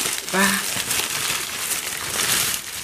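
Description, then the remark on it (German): Paper crinkles and rustles continuously for a few seconds in a dense, crackly texture, with a short voiced sound from someone near the start. “Minutenlanges Geräuschel da, ja, Geknitter.”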